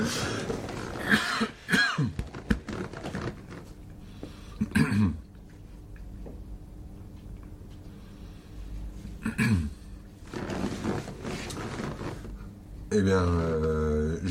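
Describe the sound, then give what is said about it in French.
Several harsh coughs and throat clearings come in scattered bursts, fairly loud, with quiet pauses between them; a voice starts speaking briefly at the very end. “Eh ben je vais tousser.”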